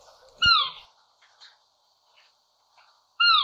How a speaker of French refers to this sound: Il y a un autre petit oiseau de nuit où leurs cris peuvent ressembler à des miaulements. J'en ai croisé quelques-uns en partant de chez moi. C'est le hibou petit duc que je vais mettre ici en post-production.